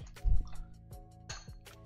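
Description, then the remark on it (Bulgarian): Water pours into a glass in a kitchen in short gurgling glugs and drips, a low splashy burst at first, then a few bubbling pulses with a faint rising tone. No one speaks. “Сега, като че ли няма лошо една чаша вода да взема.”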